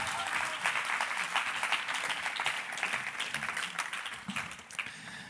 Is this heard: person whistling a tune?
no